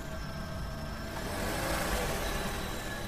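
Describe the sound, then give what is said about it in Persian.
A car engine rumbles steadily, swelling slightly louder midway as the car is driven at low speed into the courtyard of a house, then settling back to a low drone; no one speaks. “ماشین آورد تو حیات در خونه سرهنگو بستیم”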